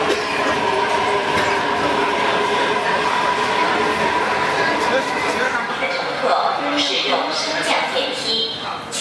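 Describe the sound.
A subway train rumbles steadily through an underground station, a loud, continuous roar with a faint whining tone running beneath it, while muffled voices murmur in the background.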